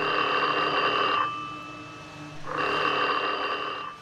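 An old-fashioned telephone bell rings twice, each long jangling burst followed by a pause, loud with no voices, in Carrie Chapman Catt's office in New York on August 26, 1920.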